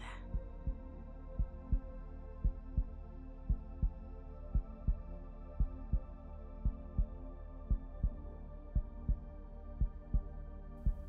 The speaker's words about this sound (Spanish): Conecta en este día con la energía de tu existencia, de tu propia vida y vamos a ese primer latido de vida.